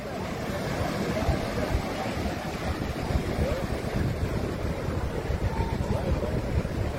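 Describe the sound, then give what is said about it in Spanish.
Fishing boats heading out to sea after snook at the start of the ninth international snook fishing tournament: a steady, dense rumble of motors mixed with rushing water and gusty wind buffeting the microphone, continuous and fairly loud throughout. “El noveno torneo, se pues ahí están saliendo. Ahí van para dentro del mar.”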